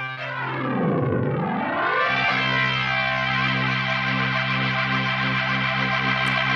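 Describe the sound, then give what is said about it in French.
A distorted organ plays a sustained chord, its tone swept and warped at first by a sweeping effect before settling into a steady, gritty, loud drone with no voices. “Là, on entend une distorsion, très nettement.”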